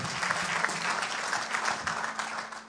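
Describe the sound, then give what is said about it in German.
Steady applause from an audience for the team setting up an armchair, a dense wash of many hands clapping at an even loudness for a few seconds, with no voices standing out. “Während das großartige Team hier diesen Sessel aufbaut, gibt ihm mal einen Applaus.”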